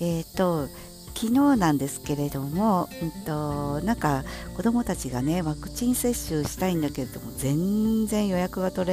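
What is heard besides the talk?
cicadas buzzing loudly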